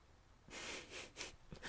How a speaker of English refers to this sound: What me blowing my nose and me trying to find the episode.